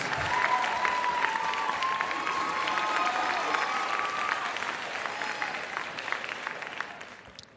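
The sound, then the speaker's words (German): Sustained audience applause at the Goldene Podcastblase 2020 awards for first place, the Coronavirus-Update with Christian Drosten from NDR Info: a dense steady patter of many hands clapping for several seconds, with a faint whistle running through it before the clapping thins out at the end. “Dann halt so. Applaus!”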